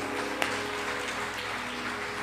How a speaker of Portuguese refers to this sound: Coloque-se de pé no seu lugar, aplauda o nome do teu Deus em nome de Jesus.